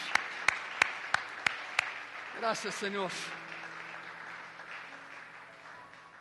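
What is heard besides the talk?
audience applauding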